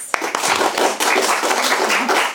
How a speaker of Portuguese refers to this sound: E palmas pra elas.